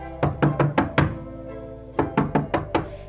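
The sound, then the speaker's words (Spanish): Someone knocks on a wooden door, five quick, solid raps, a brief pause, then another round of five. The knocks are clear, with no talking. “El chanchito se acababa de sentar para descansar un rato cuando alguien llamó a la puerta.”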